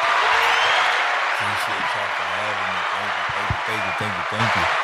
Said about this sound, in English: Yeah. Clap it up.